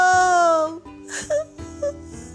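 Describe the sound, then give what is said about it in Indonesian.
A drawn-out moaning wail with a sagging pitch, then a few short breathy whimpers, as a person acts out the pained cry for help of a crocodile pinned under a broken tree trunk. “Tiba-tiba anak sapi mendengar suara rintihan minta tolong.”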